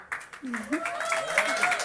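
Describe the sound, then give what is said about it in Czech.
Quick, steady hand clapping from a small group on a church boat, crisp, applauding the audience for coming, with a voice talking and humming over the applause. “Já vám tleskám, že jste přišli na nás se podívat.”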